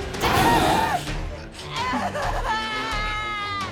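A woman screams loudly in terror as three fanged creatures seize her, with wavering, strained cries that rise and break, continuing in sustained, shrill bursts for a few seconds.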